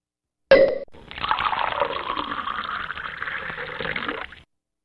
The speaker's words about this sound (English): That's Aaron Judge pouring the champagne in the Yankee clubhouse right now and then striking out trying to drink it.